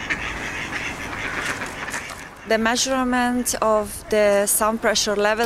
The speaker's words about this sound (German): Zwischen den Backsteinrückwänden alter Fabriken öffnet sich ein von Bäumen gesäumter versteckter Kanal. Die S-Bahn rattert noch im Hintergrund, aber die Teilnehmer des Soundwalks achten mehr auf die schnatternden Enten.